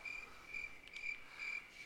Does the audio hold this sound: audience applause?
no